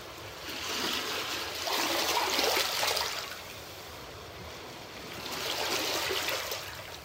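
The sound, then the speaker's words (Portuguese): Small waves of the Ionian Sea break gently on the shore of a cove at calm tide, two soft washing surges rising and receding over a steady watery hiss, with no voices. “Ouvimos as pequenas ondas quebrando na beira.”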